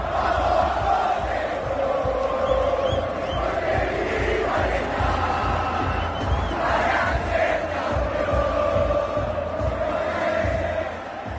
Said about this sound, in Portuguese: Se você não reconheceu, essa aqui é a versão que a torcida argentina cantou na Copa do Catar.